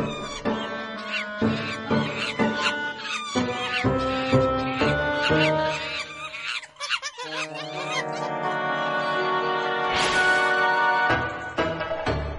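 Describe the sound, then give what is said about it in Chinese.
A troop of macaques chatters and squeaks excitedly while jumping about, with quick bursts of shrill calls at first, then longer overlapping squeals and screeches that stay loud throughout. “猴子们吱吱哇哇的跳着，表示很开心。”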